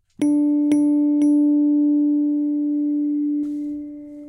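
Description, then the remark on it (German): A very simple plain synthesizer tone sustains steadily with a MIDI echo effect: three quick repeated attacks at the start echo the note, with a softer retrigger near the end; no voices, just the clean electronic pitch. “Also wirklich ein ganz, ganz simples MIDI-Echo.”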